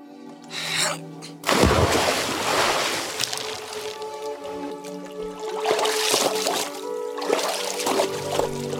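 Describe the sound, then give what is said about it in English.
Waves wash and splash around the shrimp boat Bubba Gump Shrimp moving on open water, with a loud surge early on and then a steady churning rush beneath soft sustained music. “Forrest has gotten the shrimp boat, Bubba Gump Shrimp, and I think uh, Lieutenant Dan had come out on that boat, and he has something entirely different to share with Forrest this time around.”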